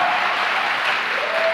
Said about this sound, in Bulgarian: Ако си готов за това послание, ръкопляски, като че си гладен за Божието Слово.